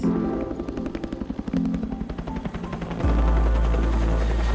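A helicopter's rotor thumps in a fast, steady chop close by, then the engine swells into a loud, deep roar as it lifts away. No voices.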